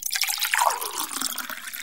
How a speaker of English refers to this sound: at Georgia X and at Rakenda M said they hate liquid pouring into a cup.